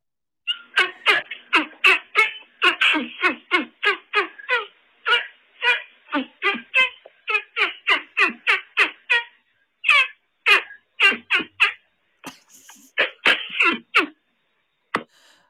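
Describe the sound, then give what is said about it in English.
A long run of squelchy, honking hand-fart noises made by a caller over the phone, dozens of short bursts fired off in quick rhythmic succession with a few brief pauses, fairly loud, with no talking. “And lo and behold, we oh. have a phone call from a hand fart artist, a hand fartist.”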